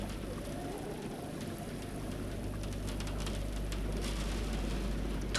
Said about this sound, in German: Es geht noch mal los, du! Der Regen klatscht gegen die Scheibe.